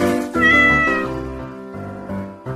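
A cat meows loudly and insistently, one long drawn-out yowl that bends in pitch and breaks into several connected cries, with no talking.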